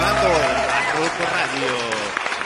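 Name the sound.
applause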